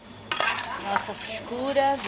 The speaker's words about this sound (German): schaufelt dampfende Muscheln auf einen Teller